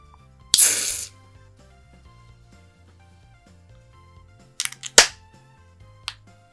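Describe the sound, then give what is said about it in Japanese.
A can of Sapporo Nama Beer Black Label cracks open with a sharp pop and a loud, hissing fizz lasting about half a second, followed later by a few metallic clicks and another brief burst; no one speaks. “ということで、せっかくなんで、ちょっと開けていきたいと思います。”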